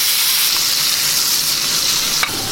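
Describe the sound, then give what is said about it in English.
A burger patty sizzles steadily in a pan as it is flipped to crust the other side, a loud, continuous crackling hiss with no talking, broken near the end by a single sharp click or scrape. “burger flip. Time to put a bit more crust on the other side.”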